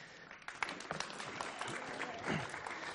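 An audience claps steadily for a few seconds, a dense patter of many hands close by, with faint crowd murmur underneath.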